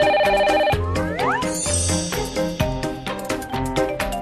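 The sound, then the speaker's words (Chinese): A phone rings with a loud musical ringtone: bright, pulsing electronic tones and a quick rising sweep over a steady rhythmic beat, playing on its own without any talking, as Jackie Chan, presenting at the 29th Hundred Flowers Awards, phones Feng Xiaogang, who was absent from the ceremony. “这一段第二十九届百花奖上，作为颁奖嘉宾的成龙给获奖却并不在现场的冯小刚打电话的视频，最近又被大家翻出。”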